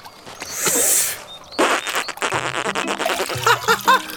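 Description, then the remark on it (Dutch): A voice blows a long, breathy rush of air at the sail of a toy sailboat, then sputters its lips in a buzzy, fart-like raspberry, followed by bursts of giggling and high, squeaky laughter. “Een lekker windje, Roef. het lijkt wel een scheetje.”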